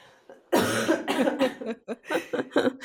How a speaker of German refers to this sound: Moment, ich muss schon wieder husten.